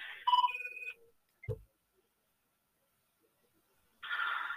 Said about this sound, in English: Sorry, my phone's ringing.